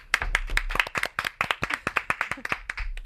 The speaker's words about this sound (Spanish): Ah, es, que tío, el aplauso más triste del mundo, tres personas.